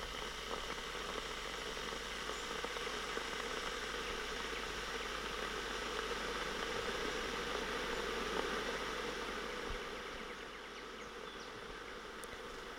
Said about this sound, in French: Donc ça, c'est le bruit de la bouilloire que nous mettons en marche plusieurs fois par jour euh, afin de faire chauffer de l'eau euh, pour boire des tisanes ou des thés en sachet.